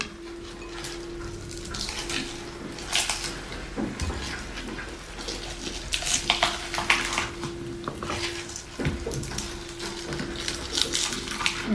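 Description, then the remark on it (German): Rustling and soft crinkling as washed young baby spinach leaves are pushed into a small blender jar, with occasional light clinks against a steady low hum in the background. “So, packe ich jetzt den jungen Blattspinat dazu. Der ist auch gewaschen.”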